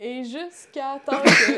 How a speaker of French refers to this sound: Oh, euh, ben, à tes souhaits. Excuse-moi.